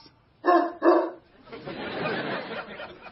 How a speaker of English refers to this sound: is there a dog in my house?